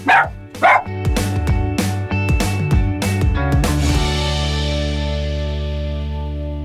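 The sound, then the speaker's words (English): Two quick, loud barks from Finn, a dog, at the start, followed by a musical passage of struck notes over sustained low tones that rings out and fades slowly. “Just us and our dog, Finn.”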